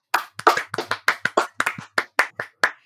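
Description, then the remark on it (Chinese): A quick run of around a dozen sharp hand claps over about three seconds, crisp and fairly loud, in a slightly uneven rhythm with no talking. “啊，听懂掌声。”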